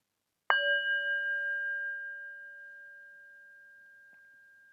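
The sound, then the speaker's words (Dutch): A singing bowl is struck once as the start signal for a short meditation, giving a clear ringing tone with a gentle wavering shimmer that sustains and slowly fades over several seconds. No voices are heard. “Je hoort het geluid van de klankschaal als beginsignaal.”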